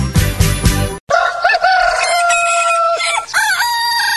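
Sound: rooster crowing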